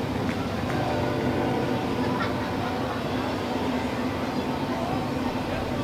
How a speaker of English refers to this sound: A lot of containers on that uh, on that train.